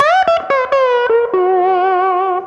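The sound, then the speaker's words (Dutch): Slide guitar played with a small glass bottle, gliding smoothly between pitches in a loud, sustained line with a few quick plucked notes at the start, then one long wavering, singing note. “Dat is gewoon die sound. Ja, ja. krijg je echt alleen met dat flesje.”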